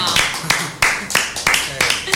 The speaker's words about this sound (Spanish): Fuerte el aplauso.